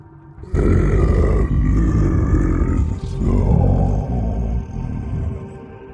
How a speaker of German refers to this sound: Plötzlich hörte ich wieder diese metallische Unterwasserstimme rufen.